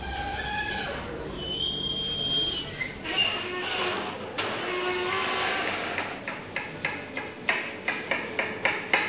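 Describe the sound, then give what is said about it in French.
Busy professional kitchen of a chef and his team, calm but efficient: clattering utensils and scattered high-pitched clinks and beeps over a steady hum, ending in a series of sharp, regular knocks like chopping on a board. “Je vous laisse vous immerger dans l'ambiance, calme mais très efficace de la cuisine”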